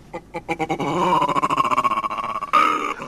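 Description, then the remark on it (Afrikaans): A baboon's barking call: quick, rhythmic grunting barks build into a long, wavering harmonic cry, ending in one louder, harsher bark. Loud, with no talking. “Daarna is dit Bobbejaan se beurt.”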